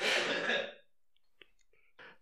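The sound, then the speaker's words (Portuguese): A single loud cough bursts out at the start, followed by quiet breathy rustles and faint small clicks afterward, with no talking. “Peraí que eu preciso tossir.”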